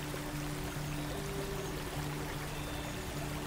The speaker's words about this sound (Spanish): Quiero que imagines la cascada azul imagines el agua alrededor.